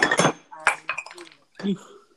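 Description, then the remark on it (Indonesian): Glass bottles for betta fish clink and knock together, a few sharp bright hits spread over two seconds, with brief bits of voice between them. “botol naon eta”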